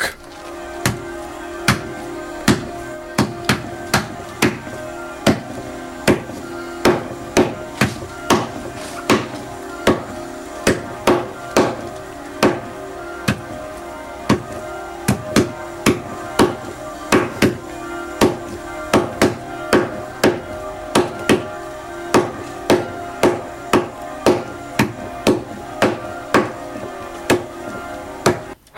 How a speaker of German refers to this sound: Und äh, falls ihr euch nicht mehr daran erinnert, äh, wie das funktioniert hat, machen wir es euch nochmal vor. Ich habe jetzt hier vor mir einen Schnitzel liegen, habe den großen Fleischerhammer da. Achtung!